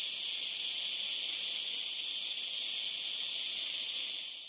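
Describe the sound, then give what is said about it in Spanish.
A cicada drones in a steady, shrill buzz, loud, holding an unbroken high-pitched whine throughout with no pauses and no voices. “Te brincaba la cigarra mientras entonaba una nueva canción.”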